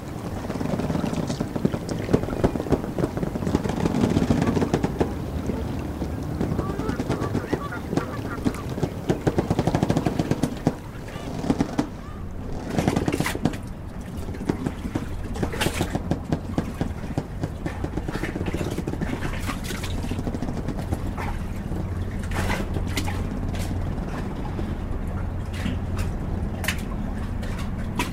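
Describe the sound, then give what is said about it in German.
A busy river harbor ambience on the Elbe river: a steady low engine drone from boats underneath, with bursts of rapid, rattling mechanical clatter and scattered sharp knocks, continuous and fairly loud, with no talking. “der Rhythmus des Hafens eher ernst als spielerisch.”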